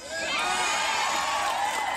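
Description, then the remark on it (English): A rally crowd cheers loudly and steadily, a dense wash of many voices with high shouts and whoops rising throughout, sustained for the full two seconds, cheering at the mention of cabinet members being booed out of restaurants. “The crowd cheered at members of your administration booed out of restaurants.”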